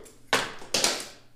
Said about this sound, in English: It's gone. That was my phone.